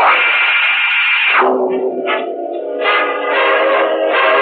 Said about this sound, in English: Dreaming, but the radio is playing loud enough to wake the dead. The dreaming man doesn't turn on the radio.